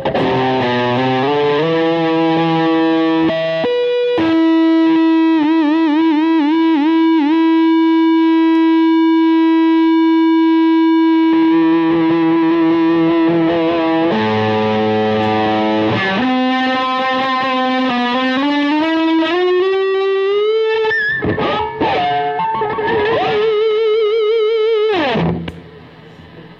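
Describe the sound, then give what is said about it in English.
Electric guitar through an EVH overdrive pedal plays long, singing, distorted notes with wavering vibrato and gliding pitch changes, loud and continuous, then a few choppier notes before it cuts off. “This really does give you the sound of an EVH amp.”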